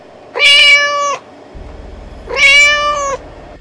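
A cat meows twice outside an iron gate, two loud, drawn-out calls about two seconds apart, clear, with a low hum in the background and no one talking.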